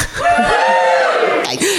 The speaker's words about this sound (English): Um, and this is the Hoovering podcast. Um, so um, give a cheer if you've heard of it.